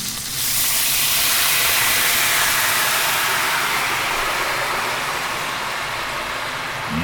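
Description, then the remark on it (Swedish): A loud, steady hiss of dry white wine, about half a bottle, sizzling and steaming as it deglazes a hot pan, beginning abruptly and holding strong for several seconds before easing slightly, with no voices. “Och nu ska vi eh, ta tillvara på den smaken genom att deglacera pannan ja. med vitt vin.”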